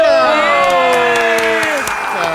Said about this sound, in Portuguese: Parecem quatro pessoas aplaudindo, mas são mais de 20 mil pessoas no estúdio